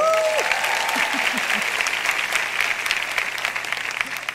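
An audience bursts into sustained applause, a dense wash of many hands clapping that fills the room and gradually eases off, with a brief tonal whistle or cheer near the start.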